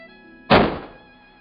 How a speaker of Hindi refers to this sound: मीना वाकई अपने आप को गोली मार चुकी थी जिसकी आवाज़ हम सब पूरे पिक्चर हॉल ने स्क्रीन पे हीरो के मोबाइल से सुनी